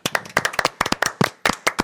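A short applause sound effect, played as an ovation for a Survival champion, made of sharp, distinct hand claps in a quick, slightly uneven rhythm, fairly loud, with no voices.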